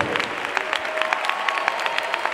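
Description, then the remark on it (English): A church audience claps steadily in worship, many hands producing a dense, crackling patter with sharper individual claps popping out in a loose rhythm, moderately loud and without speech. “Come on, just clap.”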